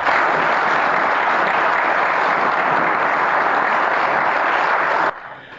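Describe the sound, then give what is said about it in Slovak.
Sustained applause in parliament after a speech by President Zelensky, with part of the opposition joining in: a dense, steady clatter of many hands clapping at even loudness for about five seconds before cutting off abruptly. “A k potlesku sa prída aj časť opozície.”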